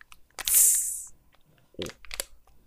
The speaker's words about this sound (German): ich warte, ich versuche mal das Dosengeräusch nachzumachen, was ich sonst noch mache.